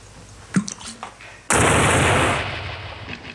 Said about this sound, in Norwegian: Han eksploderer, men han dør jo ikke.